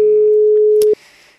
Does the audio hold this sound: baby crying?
no